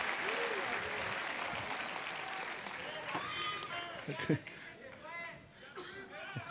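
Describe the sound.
An audience applauds steadily in a dense wash of clapping, with cheers and voices rising over it and a sharp shout near the end as the clapping thins.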